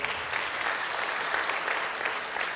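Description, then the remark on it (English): A church audience claps steadily, a dense wash of many hands at a fairly even level throughout, with no voices standing out above it. “a big round of applause, will you?”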